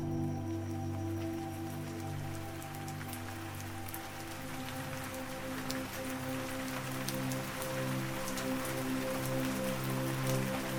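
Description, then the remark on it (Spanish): Steady rain falls continuously, a dense patter of drops with occasional sharper ticks, layered over a low sustained humming drone. No voices, just an even, immersive wash of rainfall throughout. “por el sonido de la lluvia.”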